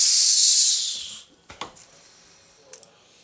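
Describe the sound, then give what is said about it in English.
A voice imitates a beer can from a six-pack that slipped out of the ring and hit a gravel driveway, spraying: a loud, bright hiss that lasts about a second and fades, followed by a few soft mouth clicks and pops. “Got out of my truck, grabbed the six pack of beer off the passenger seat, stepped out, and one of the beers slipped out of the ring, hit the gravel driveway, and went.”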